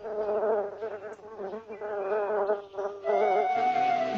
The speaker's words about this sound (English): Mother Bear hears a bee buzzing.